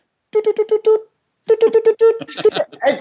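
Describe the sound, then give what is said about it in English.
A voice imitates a digital alarm clock beeping, mimicking a clock hidden inside a small foam costume house and timed to go off during a fight scene in a show: a quick burst of five steady tones, a pause, then another burst that breaks into excited, shouty vocal noise. Loud. “he had hidden a digital alarm clock inside my little condominium”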